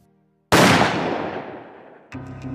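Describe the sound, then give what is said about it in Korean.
A single loud gunshot, fired one night in 1983 by Maria da Penha's husband into her back as she slept, cracks out of near silence and rings into a long, decaying echo before a low musical tone picks up underneath. “고요를 깨우는 총성이 울려 퍼졌습니다.”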